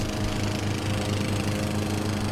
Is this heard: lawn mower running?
yes